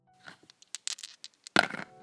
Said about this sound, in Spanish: Volvemos a lanzar los dados